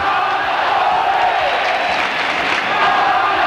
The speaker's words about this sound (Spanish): El entrenador despedido oía desde su casa, muy cercana al José Zorrilla, los cánticos a su favor y los gritos contra el palco.